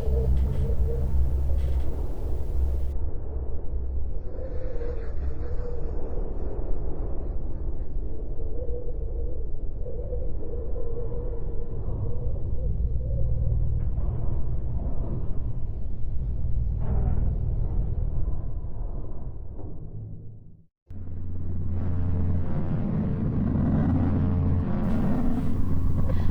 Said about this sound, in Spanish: Y este es el sonido de Marte.